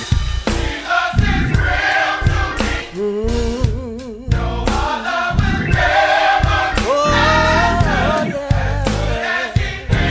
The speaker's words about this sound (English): Come on, let's give God glory in the house today. Anybody know God is real? Come on, let's praise Him. Come on, let's clap our hands and lift our voices. Come on, cry, tell Him. Sing it for me now.